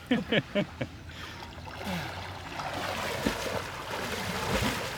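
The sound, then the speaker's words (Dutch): Someone swims through water, with a few brief voice sounds at the start followed by steady sloshing, churning splashes and gurgling water strokes. “nou, wat een zwemmer.”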